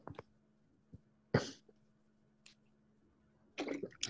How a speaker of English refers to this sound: By the way, just for the audio listeners, because I'm coughing like a motherfucker every five seconds.